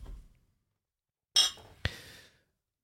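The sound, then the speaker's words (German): Two bright clinks of glasses in a toast with Ratafia, a Catalan liqueur, the first with a shimmering ring and the second a sharp tap, followed by a brief soft rustle before silence. “heute zum Ohrbespielen an Ratafia, an katalanischen Likör. Es riecht gar nicht so uninteressant, aber es dürfte trotzdem ein bisschen brennen. Stefan, cheers. Prost.”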